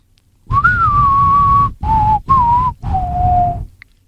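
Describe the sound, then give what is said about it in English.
A loud whistled melody in the style of a spaghetti western theme, played as four sustained phrases with brief pauses between them, with no voices. “Its theme song has a whistle.”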